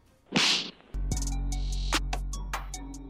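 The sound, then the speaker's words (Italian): A quick whooshing swish followed by a sharp whip crack, then a sustained low rumbling hum with a few bright snapping accents, loud with no talking. “però non possiamo non lasciare senza lo schiaffo della settimana.”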